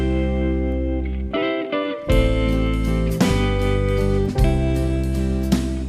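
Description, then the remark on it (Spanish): A loud, full band track from a band's new album, its second, with thick, distorted guitar chords ringing out and fresh strikes landing every second or so, playing continuously with no talking over it. “Bueno, pues aquí estamos escuchando este nuevo disco, que es el segundo”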